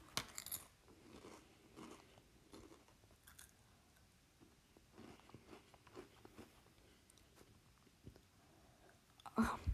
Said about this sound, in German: Ich glaube, ich höre auf, Chips zu kauen. Es tut mir leid für euch. Sorry.